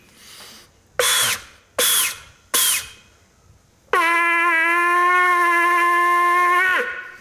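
A shofar (ram's horn) is blown at the Jewish Culture Festival in Kraków: three short, breathy, sputtering bursts, then one long, loud, buzzy horn note held steady for about three seconds before it dips in pitch and cuts off.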